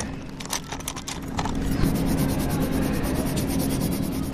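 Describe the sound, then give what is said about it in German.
Scratchy pen or marker strokes on a round paper circle as someone writes "Radio Feuerwerk" and colors a personal badge button for Radio Feuerwerk, each word and character in its own color: short rubbing bursts at first, then steadier continuous scribbling, with a faint steady hum underneath and no voices. “Also ich habe jetzt so einen runden Kreis bekommen und äh, den darf ich anmalen und dann male ich darauf einen persönlichen Anstecker für das Radio Feuerwerk.”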